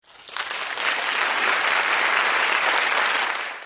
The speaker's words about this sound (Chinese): 拍手。